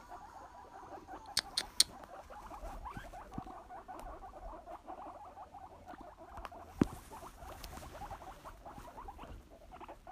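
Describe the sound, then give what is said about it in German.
Guinea pigs squeak in a steady stream of short, high chirps, with soft pattering and rustling underneath and a few sharp clicks standing out. No one speaks. “Für die Meerschweinchenversammlung.”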